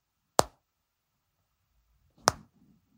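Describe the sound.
Two sharp clicks roughly two seconds apart, made with the mouth to mimic the slow clack of a passport stamp, with a faint rustle after the second.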